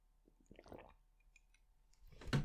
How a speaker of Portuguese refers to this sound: Deixem-me só beber aqui um bocadinho de água, faz favor.